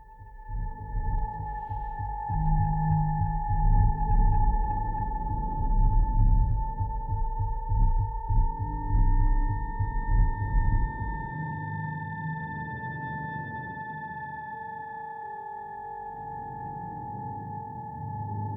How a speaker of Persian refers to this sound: به نظرم بریم سر داستان بهتره قبل از اون به موسیقی تم فیلم دکیلر گوش کنیم برمیگردیم مرسی